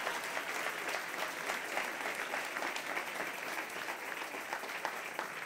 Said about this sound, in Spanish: Dale un aplauso fuerte al Señor en esta hora.